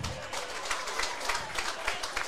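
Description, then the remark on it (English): A crowd at Redfern Oval rugby ground applauding: steady, dense clapping with many sharp, scattered hand claps over a broad wash of crowd noise, holding at a fairly even level for a couple of seconds. “Decent crowd in here now. A decent crowd. You can hear.”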